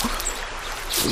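A steady, hissing wash of running water trickles continuously, moderately loud, with a slight swell toward the end and no talking.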